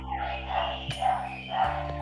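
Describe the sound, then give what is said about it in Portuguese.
A dog across the street barks in the background, a few barks spaced out over a steady low hum, with no one talking. “Eu tô escutando, tem um cachorro pro fundo mesmo.”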